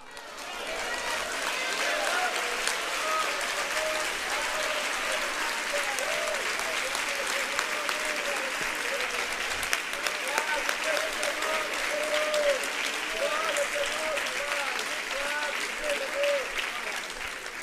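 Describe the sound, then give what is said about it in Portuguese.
An audience applauds the Lord, dense, even clapping from many hands that stays loud throughout, with some scattered voices mixed into the crowd noise. “Eu fico triste quando o povo de Deus vai aplaudir o Senhor e alguém diz: não aplauda, não.”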